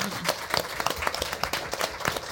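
A room full of people applauds, dense overlapping claps forming a steady, fairly loud burst that carries on throughout without letting up.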